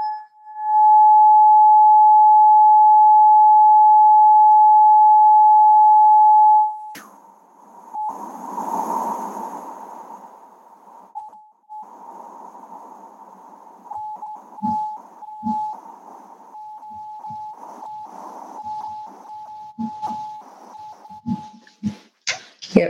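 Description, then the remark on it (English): A high-pitched tuning fork rings with a steady, pure tone, loud for several seconds, then keeps sounding more unevenly amid rustling handling noises, brief breaks and clicks. “So it's, it's pretty much the same with these tuning forks.”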